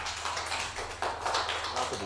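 A few people applauding, a steady patter of overlapping claps that keeps going for about two seconds at a moderate level, with a low hum underneath and no voices.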